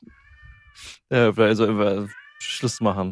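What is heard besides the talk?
cat meowing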